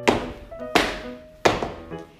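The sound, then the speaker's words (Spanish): Three heavy stomps of an elephant's foot thud on the ground at a steady, evenly spaced pace, counting to three, each one a loud, dull impact that rings out briefly before the next. No one speaks. “El suelo retumbó, pero no fue suficiente.”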